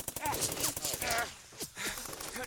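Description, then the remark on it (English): Rapid bursts of heavy gunfire crack out in quick succession, mixed with strained vocal groans and grunts, and a pause before the shots resume near the end. “Well, naturally, of course, she'd bring back up with heavy firearms.”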